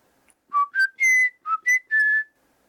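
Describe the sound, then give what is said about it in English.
A clear whistled melody of six distinct notes in two short phrases, rising and falling in pitch, with nothing else around it. “you start whistling to try to sort of imitate it and Loudwing starts whistling along with you”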